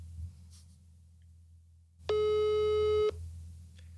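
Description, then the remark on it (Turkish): A single steady ringback tone sounds on a phone line for about a second, loud and clear over a low background hum, then cuts off abruptly, while calling a phone in Munich. “Evet acı acı çalıyor şu anda telefon.”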